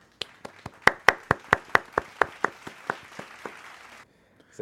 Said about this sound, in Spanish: Bien merecido, bien merecido el aplauso porque caballo, Philly Rivers.